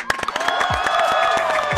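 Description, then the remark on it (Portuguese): A burst of lively clapping from a group on the show Bom Dia Bicha, honoring journalists on Journalists' Day, sharp claps piling into a dense, steady patter, with whoops and high cheering voices ringing over it for a couple of seconds. “Palmas, palmas, editor”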